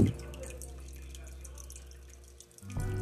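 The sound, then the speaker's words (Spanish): Water runs steadily from a tap with a soft, continuous splashing hiss, briefly dipping before the flow picks up again near the end. “Ahí viene el agua.”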